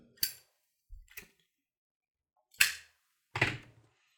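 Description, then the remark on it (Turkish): A lighter is flicked several times to light a cigarette: four crisp, scratchy clicks spaced out over a few seconds, with silence in between and no voices. “ee, al bir sigara yak benden de.”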